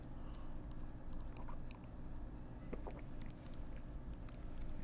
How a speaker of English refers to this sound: Uh, excuse me while I sip some more.